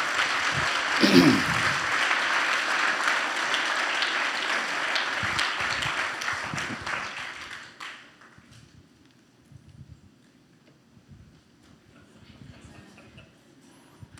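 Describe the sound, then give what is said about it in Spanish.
A church audience applauds for God after a prayer, steadily and loudly for about eight seconds, a dense wash of clapping that then fades out, leaving low rumbling movement and faint murmuring. “Darle un aplauso a Él, es para Él.”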